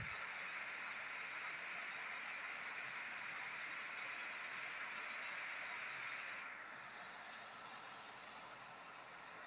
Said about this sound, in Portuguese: E a chuva vai ficando cada vez mais forte.